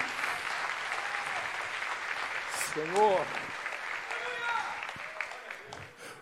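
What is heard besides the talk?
audience applause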